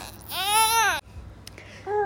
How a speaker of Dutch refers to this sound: ja, ik had mezelf even onderbroken, want je hoorde het begin van een, eh, een ontevreden kindje.